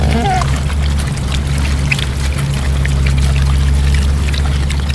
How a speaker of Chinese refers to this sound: 这是山猪在吃下午茶的声音。